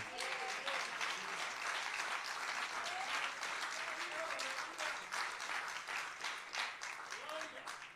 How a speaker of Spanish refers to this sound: Dile un aplauso a Dios por ella.